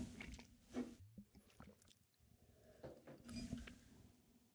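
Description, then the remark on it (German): Someone takes a sip of water, with soft wet slurping and swallowing sounds and small squishy mouth noises over a few seconds, no talking. “So, ich nehme noch einen Schluck Wasser.”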